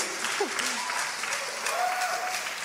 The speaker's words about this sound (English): Oh, come on, that deserves more claps than just, God, a man was healed.